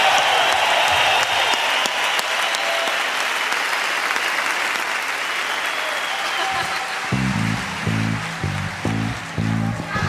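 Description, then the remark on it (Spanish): A crowd claps steadily in a dense, continuous wash of applause, loud throughout, with a voice briefly breaking in over the clapping near the end; applause at a rock and roll show for disabled guests and their families. “Que soy un aplauso chido para ellos.”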